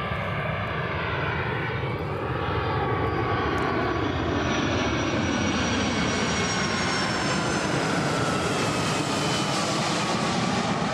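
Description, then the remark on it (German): A loud airplane comes in overhead, measured at 87.8 dB, its engine roar swelling steadily with a whining, shifting pitch as it approaches. Continuous, with no voices. “Es kommt wieder eine Maschine rein. Wollen wir mal schauen, wie laut die ist gerade?”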